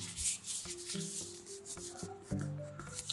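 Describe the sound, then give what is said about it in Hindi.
A hand rubs back and forth across the cover of a Penguin Classics paperback copy of The Master and Margarita, a dry, papery swishing continuing steadily for a few seconds with no talking. “ये जो है ना मेरे पास पेंगविन क्लासिक वाली कॉपी है इसकी margarita master and the margarita की”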